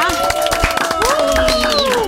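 Brief burst of applause: dense, irregular hand claps running steadily for about two seconds, with sustained vocal tones, like cheering or whooping, sliding over the clapping.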